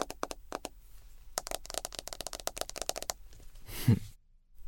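Handling of a smartphone as the photo gallery is opened: a rapid, uneven run of crisp taps and clicks as a finger moves through photos, ending with a brief rubbing sound. No one speaks.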